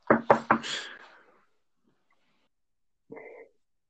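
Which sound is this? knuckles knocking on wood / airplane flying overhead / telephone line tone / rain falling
knuckles knocking on wood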